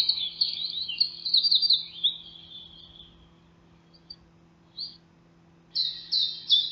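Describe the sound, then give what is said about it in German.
A wren's song 40 minutes before sunrise: a loud, rapid, high-pitched run of trills and twitters for about three seconds, a brief pause with a couple of short chips, then another fast trilling burst. “Soundkönig 40 Minuten vor Sonnenaufgang.”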